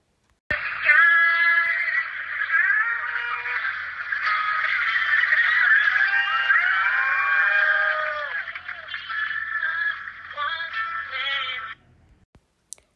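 A woman sings loudly through an amplified outdoor sound system, her sustained, wavering notes continuing for about eleven seconds with a harsh, slightly distorted edge before stopping abruptly.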